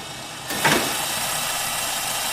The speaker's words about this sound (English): We just ordered a new key making machine, but the darn thing is so loud.